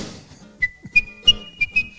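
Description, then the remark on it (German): A person whistles a short, bright song melody: one long sustained note broken by several quick accented bumps in a lilting rhythm, with faint low background noise underneath. “Wenn du da auf den Baustelle bringst, dann pfeifen alle.”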